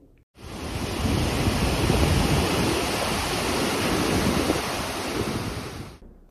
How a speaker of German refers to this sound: Die Wasserfälle hast du besucht. Können wir ganz kurz mal einspielen, wie sich das so ungefähr anhört?